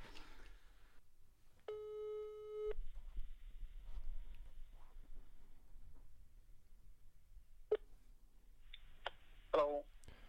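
A telephone ringing tone as a surprise call is placed, sounding once, a steady buzzy electronic tone lasting about a second, then quiet line hiss followed by a few sharp clicks near the end. No one speaks.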